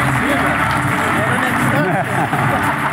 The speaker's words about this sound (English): Please all stand up and give him a huge round of applause. He is one of your two main keynote speakers.